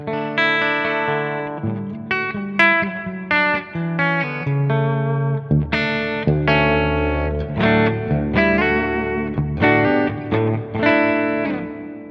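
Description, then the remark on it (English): A clean electric guitar plays a run of ringing chords and single notes with a light reverb tail, fairly loud, with steady strums and no voices. “Again, my clean tone. A little bit of reverb.”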